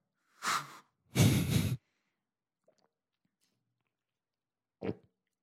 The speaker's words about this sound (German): Ich möchte einmal ganz kurz, Schatz, dass du äh, einen Schluck von deinem Happy Lemon trinkst. Okay. Dann werde ich das jetzt mal tun.